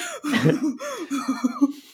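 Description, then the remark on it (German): A loud run of short voiced coughs, several in quick succession over two seconds, with a strained, throaty tone and uneven rhythm, no talking alongside. “Husten. Huste.”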